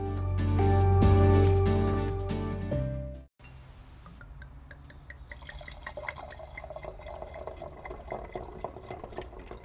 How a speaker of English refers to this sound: two loveliest sounds in the world are the sounds of a cork popping and the sound of a wine bottle pouring.